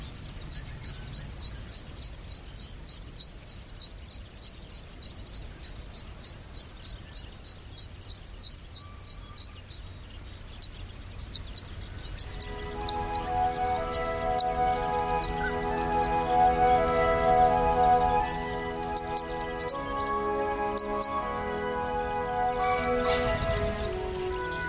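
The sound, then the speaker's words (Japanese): A zitting cisticola, recorded in Nagareyama, Chiba Prefecture, Japan, sings a long run of sharp, high "zit" notes at a steady, even pace, then gentle music swells in while scattered calls continue over it. “今朝は千葉県流山市から石火の声をお届けしました”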